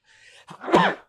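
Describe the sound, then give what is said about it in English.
A single sneeze: a short, breathy intake building up, then a sharp, loud burst of air that quickly fades. No one talks during it. “yes, bless you.”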